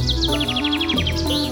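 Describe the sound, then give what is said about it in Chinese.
Various small birds chirp in a garden behind a house, a quick, steady run of bright, high-pitched notes, about a dozen short tweets in a row, over a low background hum with no talking. “散步到房子后面的花园，打算好好欣赏一下院子里面各式各样的不同小鸟。”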